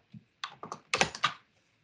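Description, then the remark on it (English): Several quick keyboard key presses in a short cluster, clear, as Windows plus Control plus Enter is pressed and released to start the Narrator screen reader, with no talking. “Narrator can be started at any point by pressing Windows plus Control plus Enter on your keyboard. I'll do that now.”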